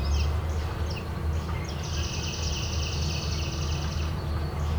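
A red-winged blackbird sings outdoors on the edge of a lake: a few short opening notes, then a long buzzy trill lasting a couple of seconds, over a steady low rumble.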